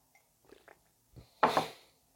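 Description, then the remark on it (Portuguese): Soft mouth noises, a few small wet clicks and then a short louder gulping slurp as someone sips water and swallows, with no talking. “Vou tomar um gole d'água.”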